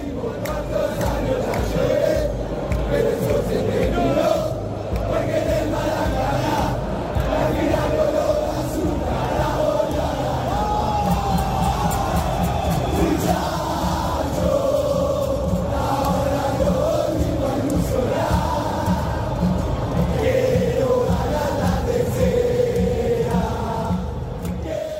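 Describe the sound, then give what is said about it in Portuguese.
A large crowd of Argentine football fans chants celebration songs loudly in unison, a dense, continuous roar of singing voices with rhythmic swells, sounding like a packed stadium celebrating Argentina's third championship title. “Nosso editor de hoje, como eu já anunciei lá no começo do programa, é Pedro Soares, está aqui colaborando bastante com a gente, colocando musiquinhas em argentinês para a gente ouvir e comemorar esse tricampeonato dos hermanos.”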